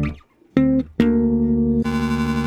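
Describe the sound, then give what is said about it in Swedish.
A steady electronic tone plays in two short bursts, then turns harsh and gritty as a bitcrusher effect kicks in, downsampling the sound and digitally lowering its quality, adding a buzzy, digital fizz over the held note. “Bitcrushen förstör ljudet. Den eh, samplar ner ljudet.”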